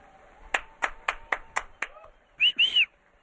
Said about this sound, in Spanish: Miren, escuchen el aplauso del público.